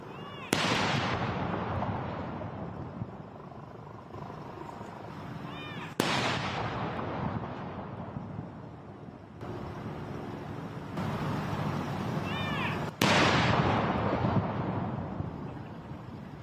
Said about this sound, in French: Chaque minute, un coup de canon était tiré depuis Hyde Park en alternance avec la cloche de Big Ben.